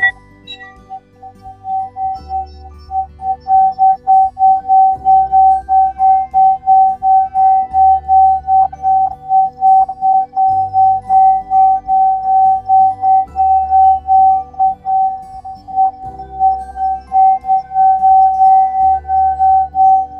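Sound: tibetan bell ringing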